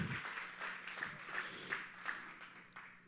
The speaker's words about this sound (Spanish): Así que un aplauso a la distancia para Teresa José.